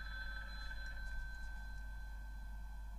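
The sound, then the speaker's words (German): A quiet, steady electronic phone-style ringing tone from an online drawing game holds for about three seconds over a low background hum, with no talking. “Und dann klingelt das Telefon, das Gartic Phone.”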